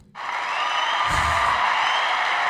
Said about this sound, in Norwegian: Vill jubel? Vill jubel.